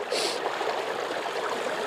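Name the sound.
strong river current flowing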